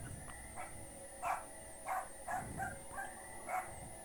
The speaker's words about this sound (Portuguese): Ó, tem um cachorro no início da música? Tem, tem o cachorro, o cachorro.